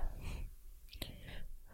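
A quiet sip from a drink: soft breathy slurping, a brief sharp click or gulp midway, then a light airy exhale, with no talking.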